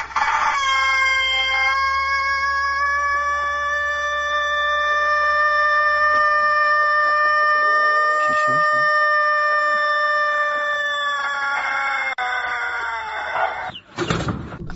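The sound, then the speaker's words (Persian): A rooster lets out one extraordinarily long crow, a loud, steady held note lasting many seconds before it wavers and cuts off abruptly. “مثل این خروزه نباشید یه دفعه تخت گاز بگیرید”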